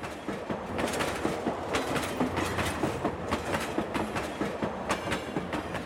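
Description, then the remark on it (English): A slow train clatters steadily along the rails, its wheels clicking in an uneven rhythm over a continuous rumbling hiss, loud throughout. “The second train is the slowest one.”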